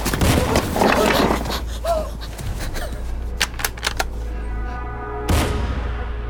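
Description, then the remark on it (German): Nine rifle shots fired at neighbours about 50 metres away, the rifle resting on a blanket: a rapid, irregular series of sharp shots, several close together and then one more after a short pause, over a noisy outdoor background with faint voices early on. “Insgesamt fallen neun Schüsse.”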